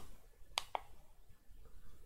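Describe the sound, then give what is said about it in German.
Two quick, crisp, sharp computer mouse clicks close together, clicking into a software Puff menu and then on Reset, with a faint background hiss and no talking. “Mal klicken ins Puff-Menü und dann hier auf Reset.”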